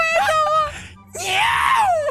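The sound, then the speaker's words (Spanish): A person imitates the yelp of a little female dog: a few loud, shrill, choppy yelps, a brief pause, then a longer high-pitched wailing cry that rises and falls. “Y los logró separar y la perrita pegó un gran alarido cuando.”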